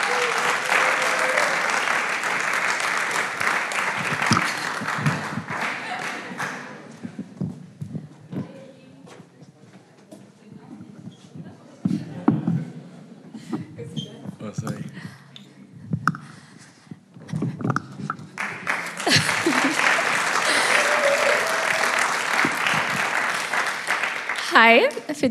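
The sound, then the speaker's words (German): Loud, dense audience applause for the next speaker fills the opening seconds, fades into scattered claps and shuffling, then swells again into a strong, sustained round of clapping at the end. “deswegen nochmal einen kräftigen Applaus”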